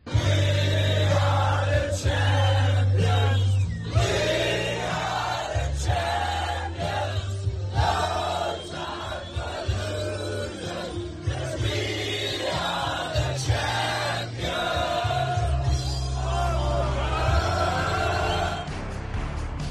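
A big crowd sings loudly and raggedly along with booming music, voices merging into a sustained chant over heavy bass, with occasional shouts breaking through the dense, continuous noise.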